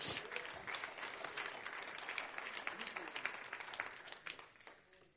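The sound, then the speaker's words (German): An audience claps for Jesus together in a dense, steady burst of applause that fades slightly toward the end, with no clear voices standing out over the clapping. “Und deswegen, da will klatschen, willst klatschen wir für Jesus.”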